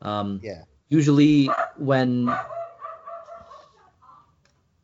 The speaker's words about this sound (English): sorry about that dog barking there. Uh, That's fine. Uh, my uh, uh, while I'm staying in Buffalo, I'm at my parents' house, and uh, their dog doesn't like any human being or any other um, animal walking anywhere near the house,